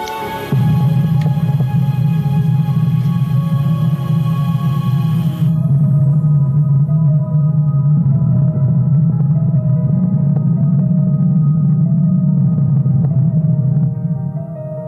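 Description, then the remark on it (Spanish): A sonified recording of Earth's magnetic field: a steady, loud low drone with a wavering hum and faint shimmering overtones, sustained for about fourteen seconds with no talking. “Y eso hace que la Tierra se oiga de esa manera.”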